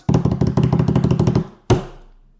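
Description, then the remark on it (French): A quick, steady run of about a dozen loud knocks on a door, then a short pause and one final heavy knock that rings out briefly. “J'ai vu le meme du Grim Reaper qui cognait à la porte des Giants, qui cognait à la porte des Browns et maintenant qui cogne à la porte des Rams.”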